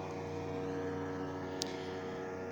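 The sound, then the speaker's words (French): A small boat with two teenagers aboard passes by, its motor droning steadily, a low humming engine with layered harmonic tones and no voices, plus one brief sharp tick partway through. “là, c'est un autre petit bateau qui passe avec deux ados dessus cette fois.”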